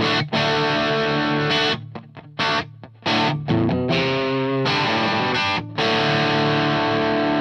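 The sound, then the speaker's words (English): A loud, crunchy overdriven electric guitar, a Fender Strat played through a Laney Lionheart amp on the normal setting, plays chords alone, with sharp stops and gaps between strums before ringing out, the distortion thick and gritty throughout. “quite crunchy. It's very crunchy.”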